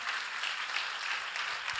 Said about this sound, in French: Merci God, a hand clap. On peut-tu l'applaudir?